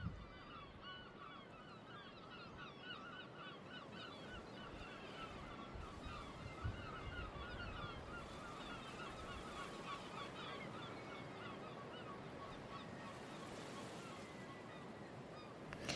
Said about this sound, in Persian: فکر کنه سواری یک کشتی هستین یا قایم وسط دریا صدای مرغ دریایی میشنویم صدای موج دریا میشنویم